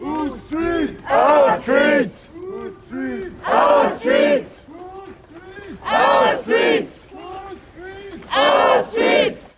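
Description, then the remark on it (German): A small protest march in Kassel, formed by people who had held out for hours in and in front of an occupied house, chants in a steady rhythm, loud bursts of massed voices repeating a short slogan roughly every two seconds, with quieter calls filling the gaps between chants. “Schnell formierte sich ein kleinerer Demozug aus den Menschen, die über Stunden in dem Haus und vor dem Haus ausgeharrt hatten.”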